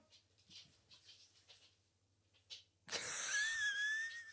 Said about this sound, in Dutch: Dan begint die hond ook weer te lopen. Terug op de bank. Ja, op bank.